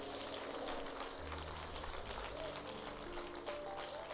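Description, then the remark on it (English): A church audience claps their hands together to thank the Lord, the many claps blurring into a dense, steady patter, while low sustained musical tones hum underneath. “Come on, clap your hands and tell the Lord, thank you.”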